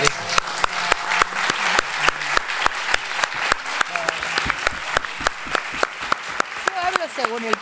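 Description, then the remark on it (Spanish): An audience applauds steadily for several seconds, a dense wash of clapping with sharp individual claps popping out at a regular beat, and a few voices calling out underneath. “Bueno, para el aplauso.”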